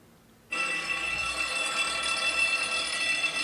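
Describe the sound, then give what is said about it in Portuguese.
A loud electric bell begins abruptly after a brief quiet moment and rings continuously at a steady, shrill, high pitch, sustained without a break until the end. “Pô, que campainha, cara.”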